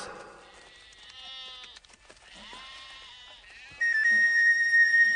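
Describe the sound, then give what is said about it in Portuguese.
A flock of sheep and goats gathered at a well, bleating over one another in wavering, overlapping calls, ending with a louder, sustained bleat. “Temos de esperar que todas as ovelhas e cabras estejam aqui e a pedra seja tirada da boca do poço.”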